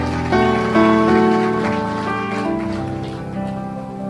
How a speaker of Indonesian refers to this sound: Bangkit berdiri tepuk tangan yang keras buat Tuhan.